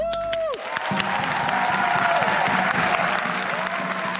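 A brief electronic tone fades out, then many hands clap in a dense, steady wash of applause for healthcare workers as the coronavirus pandemic reached Norway, continuing at an even, fairly loud level with no voices standing out.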